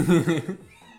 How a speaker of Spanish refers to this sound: wow, ese gato tiene hambre. ¿Escucharon?